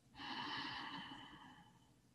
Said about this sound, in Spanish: Vamos ahora a disolver la mente en cada respiración inhalando profundamente